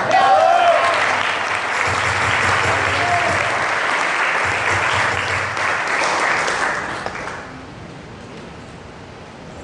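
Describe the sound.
Sustained audience applause, a dense wash of many hands clapping steadily for several seconds before tapering off toward the end, with a hint of voices mixed in.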